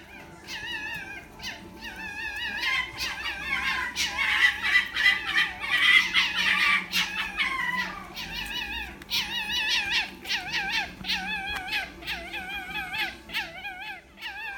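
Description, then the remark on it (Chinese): Foxes calling with high, wavering, whiny cries, many overlapping in a continuous, loud chorus of squeals and yelps that sound somewhat like crying babies or cats, with no talking. “那么到底狐狸是怎么叫的呢？我们现在就来给大家听听看。”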